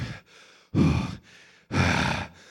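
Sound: imitated heavy panting breaths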